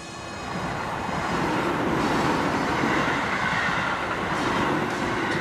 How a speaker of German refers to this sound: Und auch mal so eine U-Bahn vorbeifahren, weil es war, wir haben so neben der U-Bahn gewohnt.